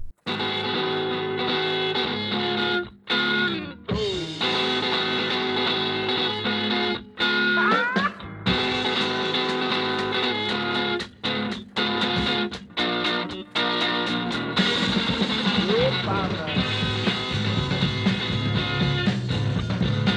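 A rock band recording plays loud and dense, with distorted, bending guitar over steady drums, broken by a few brief stops before the full band crashes back in.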